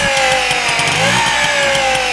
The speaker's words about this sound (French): Pédale pour démarrer, on décompresse, on pédale, on démarre et ensuite euh, on accélère tout simplement. C'est un vélo à moteur. Tourne la poignée à fond et let's go.